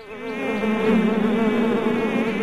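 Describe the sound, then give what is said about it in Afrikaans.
A steady, droning buzz of many flies flapping their wings up and down, a dense layered hum that stays loud throughout with slight wavering in pitch. “Dit is 'n gedreun en gezoem van 'n ander wêreld, soos die vliee hulle vlerke op en af klap albo oor Maanie en Driekie se koppe.”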